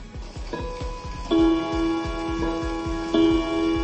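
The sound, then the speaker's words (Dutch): A mechanical clock, bought before the war, ticks steadily and briskly, with a couple of resonant chime tones ringing out and lingering over the ticking. No one speaks. “Dat was de laatste klok die mijn vader en moeder voor de oorlog konden kopen.”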